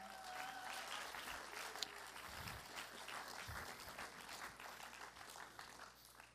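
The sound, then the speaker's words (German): A crowd applauds steadily as two guests are welcomed onto a stage, a dense wash of many hands clapping at once that holds at a fairly even level for several seconds before tapering slightly, with no voices standing out. “geben wir ihnen doch einen herzlichen Applaus.”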